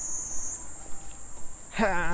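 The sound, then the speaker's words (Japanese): A cicada's steady, high-pitched drone at night runs unbroken through the whole clip, and a voice starts speaking over it near the end. “これセミかないいや違うか虫の声泣き虫泣き虫の声かいやセミかこれなんセミいやな虫んセミも虫だセミも虫だあセミだなこれ”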